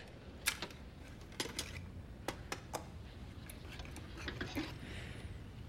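The clock on a bomb made of plastic explosive ticks: a handful of sharp, crisp clicks with slightly uneven spacing over a low, steady background hum, with no voices.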